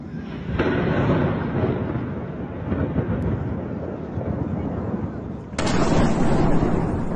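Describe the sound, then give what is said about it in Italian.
Heavy explosions from missile strikes on airports in Kyiv and bombardment in Kharkiv, Ukraine, at the start of the Russian invasion, rumble continuously, with a sharp blast early on and a louder, harsher boom near the end, all blending into a dense, roaring wash of low noise. “Quelle che sentite sono esplosioni a Kiev, missili sugli aeroporti e bombardamenti a Kharkiv.”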